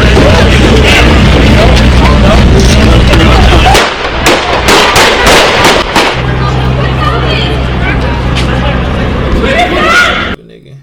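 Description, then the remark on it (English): A rapid series of sharp gunshots cracks out in irregular bursts, loud, over a noisy crowd with people talking and shouting throughout, in Los Angeles on Super Bowl Sunday. “and then you just hear gunshots.”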